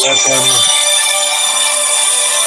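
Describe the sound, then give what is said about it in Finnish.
A phone ringtone plays loudly and steadily, a bright electronic melody filling the whole moment, with a brief voice at the very start. “Joo, anteeksi, me hiljennetään puhelimen tästä välillä.”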